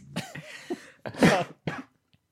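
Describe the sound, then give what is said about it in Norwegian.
A woman gives a few raspy coughs: two or three small throaty hacks, then a loud, harsh cough and one shorter follow-up before silence. No talking. “Hun hosta”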